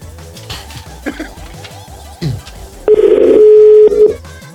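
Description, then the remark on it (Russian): A loud, steady dial tone from a corded landline telephone holds for about a second, a single mid-pitched hum, preceded by faint murmuring and scattered clicks that may be someone dialing. “Личный гудок.”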